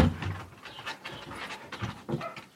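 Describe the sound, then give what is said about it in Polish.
Dogs pant rapidly and excitedly, a steady stream of quick breathy huffs with occasional whimpery edges, no talking over it. “Um, psy zwariowały?”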